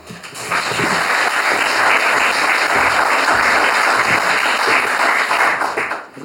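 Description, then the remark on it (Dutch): An audience at an evening event called Slechte Kunst breaks into steady applause as a theatre maker is welcomed onto the stage, a dense wash of many hands clapping that swells quickly, holds loud for several seconds, and tapers off at the end. “Ik nodig van harte uit op het podium en geef hem een applaus.”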